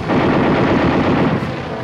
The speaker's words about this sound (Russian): Снова эти толчки и выстрелы! Опять атакуют! Огонь!